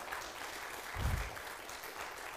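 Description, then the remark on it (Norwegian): A small church crowd applauds two young girls with a steady, dense patter of clapping that holds for the whole stretch at a moderate level, with a brief low thump partway through. “Du, de to må forresten få en klapp.”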